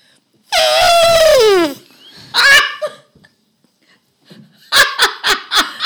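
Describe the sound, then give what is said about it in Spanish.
A person imitates an elephant's trumpet with a loud, brassy blast that slides downward in pitch, then a shorter second blast, followed by a burst of rhythmic laughter. “Y vas a imitar a. Al elefante.”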